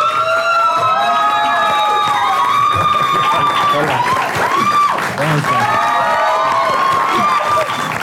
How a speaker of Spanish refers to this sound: Un fuerte aplauso para José racasillo Castillo.